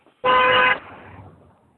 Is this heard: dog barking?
no